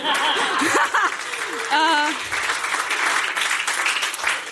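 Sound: applause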